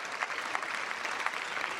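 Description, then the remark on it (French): Sustained applause from a large group in a parliament chamber, honouring police officers who died on duty, a dense steady patter of many hands clapping with no pauses, even in loudness throughout, with no voices standing out. “je voudrais ici, depuis trois ans, vous lire et j'espère vous faire applaudir dans l'ensemble de cet hémicycle tous les policiers morts en service et qui laissent des veufs, des veufs, des orphelins.”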